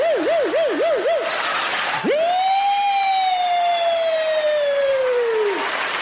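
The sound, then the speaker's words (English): A loud siren-style alert sound effect: a quick warbling wail for about a second, then a long swooping tone that rises sharply and slowly falls, over a steady noisy background. “the Sunny Poony burner account alert system, sponsored by Shout It Out Loudcast”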